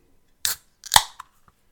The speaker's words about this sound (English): I just had to go ahead and open that beer. All right, so yeah, that's me cracking the beer open.